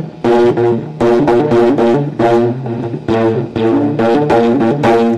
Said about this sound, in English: you can actually see that this is vibrating like a mosquito wing would vibrate very, very fast, and it's being picked up and amplified by the sensor.